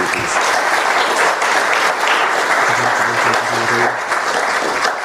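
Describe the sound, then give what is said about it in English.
A crowd claps steadily and loudly for about five seconds, a dense, continuous wash of applause for one of the younger members of a group, with a faint voice or two murmuring underneath. “So big round of applause”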